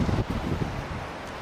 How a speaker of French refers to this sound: Peut-être un peu trop de vent là.